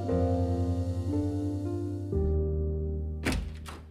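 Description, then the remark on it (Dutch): A steady low engine hum runs throughout, then a van door shuts near the end with a solid thunk as someone gets into the van to drive to work early in the morning, followed by a second, lighter knock. “Ik stap nu mijn bus in en om tien voor zeven ben ik al op mijn werk.”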